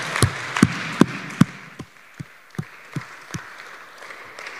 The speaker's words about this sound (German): Lass uns fetten Applaus geben, auch für alle, die im Live-Chat mit dabei sind.